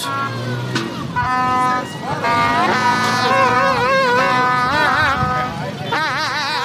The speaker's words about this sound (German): Das klingt ein bisschen nach erkälteten Elefanten, ist es aber natürlich nicht. Wo hast du dieses Geräusch aufgenommen und was ist das? Das sind Trötengeräusche von Protesten, äh, die in Niamey, der Hauptstadt Nigers, stattgefunden haben